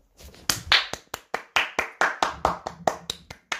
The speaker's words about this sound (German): Applaus dafür.